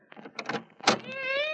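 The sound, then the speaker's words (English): A cat gives a drawn-out, tonal meow, preceded by a few short scuffling bursts of noise. No one speaks. “Oh, it- oh, that's a cat.”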